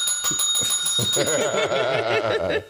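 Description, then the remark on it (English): A small bell rings with a bright, sustained metallic shimmer, struck rapidly several times at first, while a voice murmurs or laughs underneath through the rest of the moment. “So he can understand the importance of the bell.”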